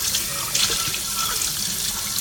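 Tap water runs steadily into a sink as dishes are washed, a continuous hissing splash with a few brief clinks and sloshes partway through. No one speaks.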